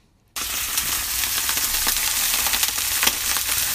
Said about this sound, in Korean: 이게 뭔 소리일까요? 이게요. 전 부치는 소리래요. 그 기름 둘러가지고 툭툭 튀는 소리. 예, 전 부치는 소리. 오늘 일부에 함께할 노래 중에 나올 텐데요. 오늘 보물소리는 전 부치는 소리입니다.